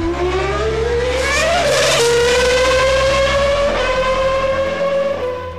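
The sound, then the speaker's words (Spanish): A loud, high-revving 3-litre Renault RS7 V10 Formula 1 engine of the 1995 season screams, its pitch climbing, dropping sharply at a gear change, then climbing steadily again, with no voices. “El motor era el RS7 B10 de 3 litros de cilindrada.”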